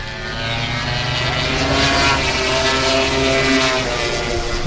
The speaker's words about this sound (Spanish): Ese es el sonido de las motos pasando por la curva Ferrari, que es la penúltima curva antes de llegar a la Jorge Lorenzo, que la eso a la recta de meta.